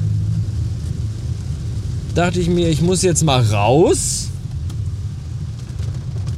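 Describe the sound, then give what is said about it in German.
Steady low car engine and road rumble from inside a car being driven along the way runs continuously from start to finish, even, with a person speaking briefly over it in the middle. “Ähm und deswegen sitze ich jetzt im Auto und bin unter dem Weg.”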